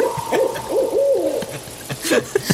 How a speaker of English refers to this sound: I think that's the night owl.